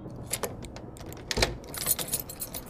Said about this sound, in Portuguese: A porta do apartamento se abriu. Uma figura amigável entrou por ela, carregando uma sacola de supermercado.